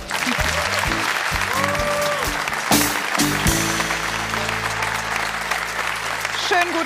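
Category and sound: crowd, studio audience applause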